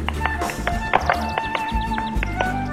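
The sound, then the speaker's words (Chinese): The hooves of a cow that has run into the house and jumped onto a table tap out a quick, uneven tap-dance rhythm, a dozen or so sharp knocks, over a steady low hum and faint sustained tones, with no voices. “奶牛一进屋就冲小猪扑，它它它还跳上了桌子，大跳踢踏舞。”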